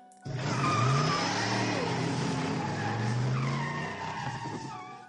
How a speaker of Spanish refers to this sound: Al llegar al bar, que seguía cerrado, pensó en subir con el coche hasta la casa, pero en ese momento vio un coche que bajaba a toda velocidad por la cuesta.